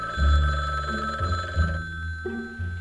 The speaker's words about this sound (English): I'm feeling good about myself, but then the phone rings.